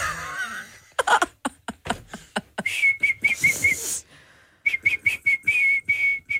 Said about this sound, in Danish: Blow my whistle, bitch.